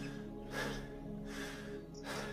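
Heavy, labored panting from a seated man: three loud, breathy gasps spaced evenly about every three-quarters of a second, rasping, with no speech.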